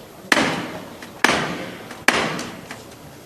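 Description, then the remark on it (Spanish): A metal knocker on a procession float is struck three times at a steady, unhurried pace, each sharp, ringing blow fading away before the next. The knocks are loud, with no voices. The float stands at the doorway of the parish church of San Sebastián as final preparations are made. “Pues nada, el paso arriba justamente en el dintel de esta parroquia de San Sebastián y último momento para tenerlo todo preparado y para que en esto sanguíneo pues se aproxime al martillo.”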